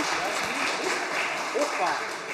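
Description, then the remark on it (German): An audience claps steadily, a dense, even patter of many hands lasting the whole stretch, with faint vocal whoops or murmurs mixed in, at the start of the second round of the Agilien-Duell quiz, Team Kronleuchter against Team Hochbahn. “Genau, einmal Applaus bitte.”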